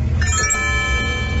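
A bright electronic message notification chime rings once and lingers as a sustained high tone, heard over a steady low rumble of background noise.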